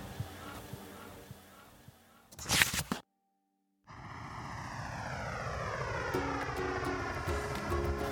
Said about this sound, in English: Momo and Lolotte felt excited while boarding the plane. The flight to Sydney was long but peaceful.